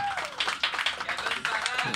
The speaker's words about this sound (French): On a aussi plein de chroniqueurs et surtout Jonathan Simon, mesdames, messieurs, en house band extraordinaire. Ben oui, applaudissez ça